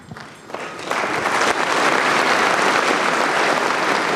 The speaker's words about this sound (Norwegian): Her hører vi applausen etter at åpningsseremonien er fullført, sånn som Bella hadde bestemt det, uten nystemten. Og kongeparet har nå reist seg, går mot utgangen, og spenningen er enorm.